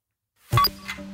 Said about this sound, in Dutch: Dan eh, ga ik de klok aanzetten en dan gaan jouw 60 seconden in.